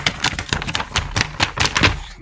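A stack of paper pages being straightened, knocked against a hard surface in a quick series of crisp taps with short rustles between them, no voices.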